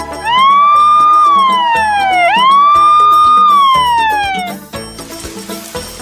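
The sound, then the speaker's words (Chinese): An emergency vehicle siren, sounded by pressing the blue button to warn a car ahead to pull over, wails in two long rising-and-falling sweeps, loud and steady, over a bouncy background music track that continues after the siren cuts off. “Yellow、Blue、Yellow、Blue、Blue right，蓝色按钮是按响警报器。”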